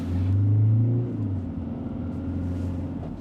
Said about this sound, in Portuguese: Para já, a carrinha segue caminho, vai para o Lumiar e para a Praça de Espanha.